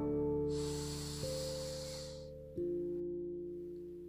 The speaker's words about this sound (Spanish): Comienza una respiración profunda. Inhala.